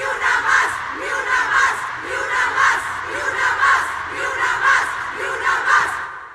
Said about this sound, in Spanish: Al terminar la interpretación, un coro monumental conformado por las miles de personas que nos dimos cita, con lágrimas en los ojos, no podíamos dejar de gritar frente al gran palco de honor, ni una más, ni una más, ni una asesinada más.